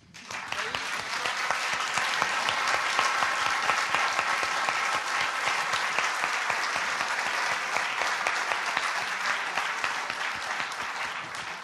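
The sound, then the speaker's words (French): Sustained audience applause for three panel speakers, a dense wash of many hands clapping, steady and loud for about twelve seconds with no voices standing out. “Peut-être on commence par les applaudissements.”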